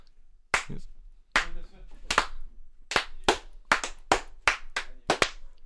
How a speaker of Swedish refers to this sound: Den här applåden var eh, helt fantastisk. Helt ursynt. Ja, men den är kraftfull ska du veta. Som en highlander ute på Skottland. You can take my life but you can never take my freedom, applåden.